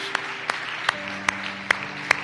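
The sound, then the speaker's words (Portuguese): Congregation applause for Christ: a dense wash of clapping with sharp, evenly spaced claps standing out in a steady rhythm, over a sustained low hum of held tones. “Dê um aplauso a Cristo uma vez mais, porque Ele se merece.”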